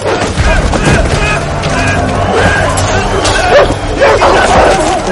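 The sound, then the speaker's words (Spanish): A dog named Jax barks and snarls aggressively as it attacks a man amid a loud, chaotic scuffle among prisoners, with several people's voices shouting and clamoring throughout as a handler tries to calm the dog. “Uno de los cuidadores intenta calmar al perro y otros presos se acercan a verlo.”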